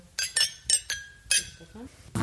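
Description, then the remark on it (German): Glasses clink together in a toast, five or six bright, ringing taps in quick succession, with faint voices murmuring underneath. “Es war halt einfach eine Fleißarbeit, und darum Prost. Prost. Prost.”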